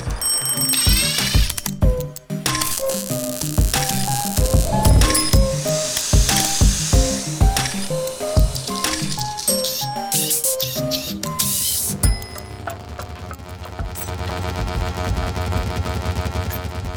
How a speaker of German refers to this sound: mit diesem unfertigen Intro-Jingle und diesem neusigen Klangbett, von dem ihr gleich noch erfahren werdet, wie das gemacht wurde,